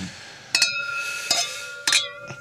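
Glasses of rosé champagne clink together in a toast: about four bright taps over a couple of seconds, each leaving a clear, sustained ringing tone that hangs in the air. No one speaks.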